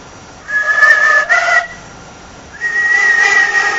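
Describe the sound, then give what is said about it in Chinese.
A whistle-flute tone: whistling and a bamboo flute sounding together, giving a bright, breathy doubled tone; two sustained melodic phrases, the first with a short break in the middle, the second steady and held to the end. “哨笛音就是你吹口哨和这个笛子一起出来的声音。”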